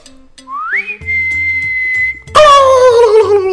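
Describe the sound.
A person whistles a single rising note that holds steady for about a second, then a turkey answers with a loud, harsh, descending squawk-like call that trails off. No talking.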